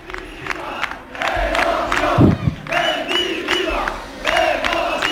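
A large crowd of Sevilla fans at the celebration at the Sánchez Pijuán stadium chanting coach José Luis Mendilíbar's name in rhythmic unison, the loud repeated chant rising and falling in steady waves over a dense background roar.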